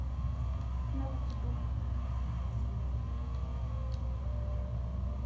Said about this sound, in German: Wir fahren jetzt die Autos ein bisschen.